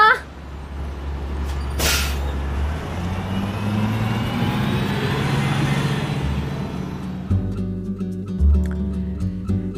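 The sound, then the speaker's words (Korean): A bus engine rumbles and rises as the bus pulls away, with a short hiss of air brakes near the start and steady low engine drone throughout. “어, 저기 버스 왔다.”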